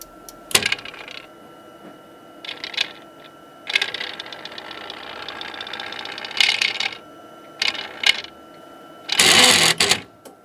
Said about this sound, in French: Alors c'est un bruit qui serait surtout très familier pour des chimistes. Hein. Euh, donc c'est une chromatographie en phase gazeuse hein.